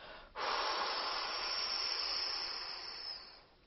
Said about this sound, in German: Und um wieder zu landen, bläst du jetzt deine ganze Luft wieder aus deinem Mund, bis deine Lunge leer ist.